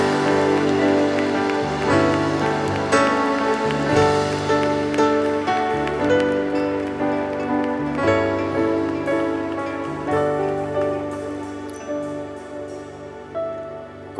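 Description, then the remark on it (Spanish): A large crowd at a conference claps loudly and continuously in applause for Jesus, a dense wash of applause that holds steady for the whole stretch, with sustained musical chords ringing underneath and no one speaking. “Pero dáselo fuerte, fuerte, fuerte ese aplauso al Rey.”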